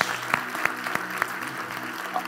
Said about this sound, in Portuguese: Dê um aplauso a Ele. Glória a Deus.